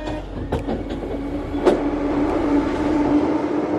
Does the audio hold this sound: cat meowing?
no